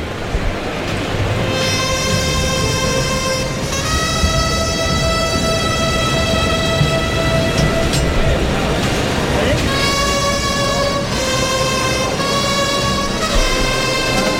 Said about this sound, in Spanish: Emilio de Justo, vestido de sangre de toro y oro, calándose la montera, capote en mano, últimas confidencias con su mozo de espada, suenan clarines y timbales. Protagonista hoy aquí, Emilio de Justo.